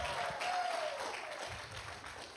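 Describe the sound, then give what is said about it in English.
An audience applauds, a dense wash of many hands clapping together, steady and fairly soft, with no one talking over it. “Let's give it up for”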